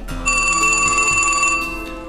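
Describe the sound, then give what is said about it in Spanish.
A telephone rings once, a bright, shrill bell-like burst lasting just over a second, fairly loud over a low background hum, then fades out. No one speaks. “Un hombre que no conozco me llamó por teléfono.”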